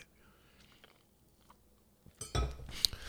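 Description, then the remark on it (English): Near the end, after near silence, someone takes a quick sip of cold beer from a glass, with a brief slurp and a faint clink of glass. “All right, quick sip”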